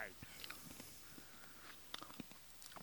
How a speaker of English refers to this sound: What the fuck do you have in your mouth? You sound like a damn barnyard animal chewing on some grain, corn, or some shit. Sorry, it was candy.